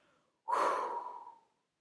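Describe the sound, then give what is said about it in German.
A single loud, breathy exhale through the mouth during a guided meditation, after a deep breath in through the nose, starting abruptly and trailing off over about a second, alone with no talking. “Wenn du dich jetzt für deine Meditation eingerichtet hast, atme ganz tief durch die Nase ein, füll den Bauch, füll die Brust und atme alles, was du nicht mehr brauchst, was dir nicht mehr dienlich ist, durch den Mund laut aus.”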